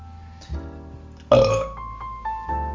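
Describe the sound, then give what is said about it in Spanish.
A loud burp erupts suddenly, a deep rumbling belch lasting a fraction of a second, with softer guttural sounds before and after it. “Este luto lo voy a dejar porque suena real.”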